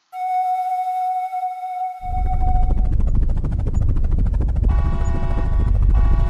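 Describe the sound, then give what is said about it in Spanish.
A helicopter carrying a commander toward his destination is in flight: a steady high turbine whine gives way to loud, rapid rotor thumping and heavy low rumble that keeps going, with the engine whine returning over the beat. “El comandante quería llegar a su destino, pero su helicóptero presentaría fallas y caería en medio de la selva amazónica.”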